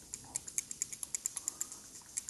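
A rapid, steady run of small, crisp mechanical clicks, about a dozen and a half in two seconds, from braille display pins popping up in a rotating circle on the braille line just after the device is switched on, fairly quiet with no voices.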